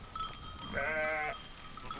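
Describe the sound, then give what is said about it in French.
A single sheep, one of those keeping the green spaces of a university campus grazed, bleats once, a short wavering baa lasting about half a second, heard clearly over a soft outdoor background hum. “Et eh oui, l'écologie n'est pas un vain mot sur le campus, comme le prouvent ces moutons qui entretiennent les espaces verts”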